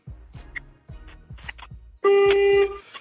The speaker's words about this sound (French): Eh non, il faut répondre avec le klaxon. C'est le but du klaxon game.